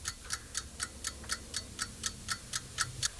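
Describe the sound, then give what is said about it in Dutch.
An alarm clock ticks steadily and quickly, about four crisp ticks per second, repeating evenly over a faint low background hum with no one speaking. “ik was nog niet geconcipieerd of ik hoorde die wekker al die, die stond naast me toen mijn vader een nummertje had gemaakt.”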